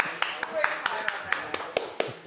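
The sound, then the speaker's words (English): Steady clapping for cigar maker Dunbarton Tobacco and Trust, about ten crisp claps at an even, fairly quick pace, sounding over a soft murmur of voices. “yes, let's give them a round of applause.”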